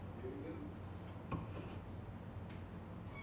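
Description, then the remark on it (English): Someone at the door as it is opened: one dull thud followed by a fainter second bump a moment later, set against a quiet, steady hum. “No, I feel like so many random niggas knock on the door during this podcast.”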